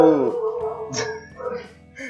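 A nearby dog whines with a falling, drawn-out whimper, then gives a short sharp bark, followed by softer whimpering sounds over a couple of seconds.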